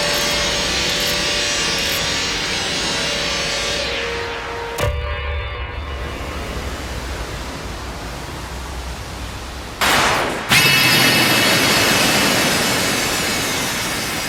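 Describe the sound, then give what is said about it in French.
Synthesized sound textures generated with an audio plugin, with no talking: dense, loud hissing and rushing noise that shifts abruptly into new, rough, grainy timbres around five and ten seconds, the first section carrying a faint tonal hum. “Donc ça c'est que des sons qui sont générés avec le plugin.”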